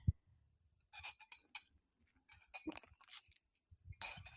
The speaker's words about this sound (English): That's my water. I have a metal straw in my little wine glass that I have water in to feel fancy.